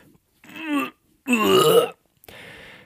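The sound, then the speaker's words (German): A voice imitates a drunk passenger retching and vomiting in the back of a taxi in three loud bursts: a gurgling heave, a longer strained gag, then a wet splattering sound, with brief pauses between. “hat den ganzen hinteren Wagen vollgekotzt”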